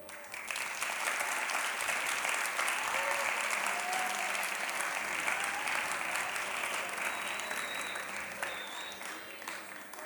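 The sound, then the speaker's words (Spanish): Sustained audience applause fills the whole stretch, a dense, steady wash of many hands clapping at an even loudness for about ten seconds, with a few faint whistles or voices mixed in. “Y si hay alguien que tenga una pregunta, o, es para que me vaya rápido, por eso aplaudieron harto, no.”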